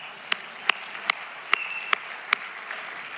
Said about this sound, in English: That is a good moment to clap. Thank you for helping me.